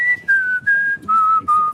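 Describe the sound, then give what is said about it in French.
Someone whistles a short TV theme tune: five or six clear, sustained notes that step downward in pitch with brief breaths between them, with no talking. “Ah ben voilà, je vous ai sifflé Thierry Lafronde.”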